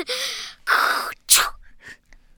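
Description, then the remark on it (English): A voice makes a series of breathy, hissing bursts, two long and one sharp, then softer trailing puffs, while trying to pronounce a "th" sound. The effect resembles a sneeze, with no speech. “That sounded like you were sneezing.”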